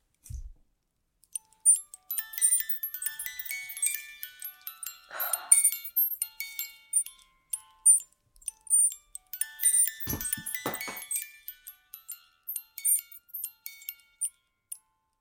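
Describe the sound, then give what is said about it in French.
A small music box plinks out a slow tune, Peter and the Wolf (Pierre et le loup), in bright, metallic single notes, fairly soft, with a couple of brief low thumps or handling noises partway through. “Et donc je lui ai fait écouter et il voulait toucher du doigt cette petite, euh, oh ce petit mécanisme.”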